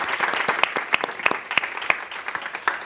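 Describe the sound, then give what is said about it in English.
An audience claps together in steady, dense applause for a beer company's Live Sharp Pillar, many hands producing a continuous patter with sharper individual claps popping out, sustained at moderate loudness throughout. “Let's give a big round of applause for Live Sharp Pillar.”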